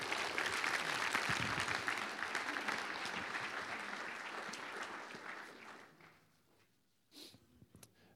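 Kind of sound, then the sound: crowd, audience clapping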